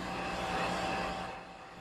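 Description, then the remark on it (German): A flying car sweeps past by the Ulm Minster with a broad whooshing rush and a steady electric whine, swelling briefly before fading away, with no voices. “Und da fliegt ein Auto vorbei.”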